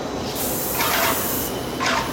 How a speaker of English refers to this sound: big air handler on back, kicking in, nice 72 degree air. Spray booth fired up, here we go.